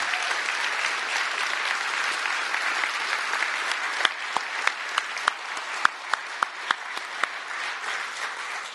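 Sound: audience clapping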